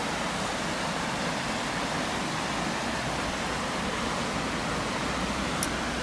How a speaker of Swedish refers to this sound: Som ni hör nu så står vi vid forsen här som rinner förbi kvarnen.